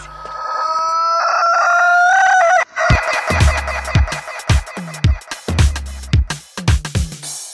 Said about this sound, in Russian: На помощь, мужики! Петухи взбунтовались!